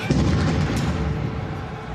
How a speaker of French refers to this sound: Mais ce bruit, c'est en fait l'explosion d'une bombe près du Stade de France. Un attentat.